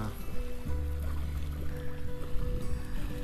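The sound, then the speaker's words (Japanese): Ocean waves wash steadily against the shore on Ishigaki Island, Japan, on a sunny day, in a continuous broad rush, fairly loud, with a low droning hum running underneath throughout. “波の音聞こえますよねいい感じで”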